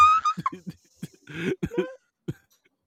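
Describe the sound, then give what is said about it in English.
Someone clears their throat several times, a run of short rough rasps and hums with a longer gravelly stretch in the middle, then one last brief grunt. “I'm just clearing my throat.”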